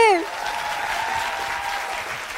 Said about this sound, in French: Applaudissez-vous s'il vous plaît.